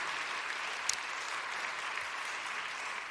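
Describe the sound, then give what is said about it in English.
Steady audience applause welcoming the administration of Landon Middle School, a dense wash of many hands clapping at an even level throughout, with no voices breaking through. “So if you would give a nice warm welcome to the, the uh, administration from Landon Middle School.”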